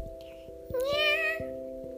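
A single drawn-out cat meow, close and clear, rising then falling over about half a second, set against a steady low hum with faint ticking in the background.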